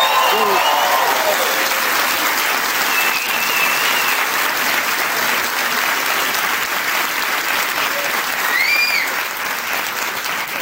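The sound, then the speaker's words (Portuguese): An audience at an event with a women's football team and coach Francisco Neto applauds steadily for the whole stretch, a dense, even wash of clapping, with faint whistles and voices rising briefly above it. “Vocês já aplaudiram, já estragaram tudo, mas muito obrigado, obrigadíssimo.”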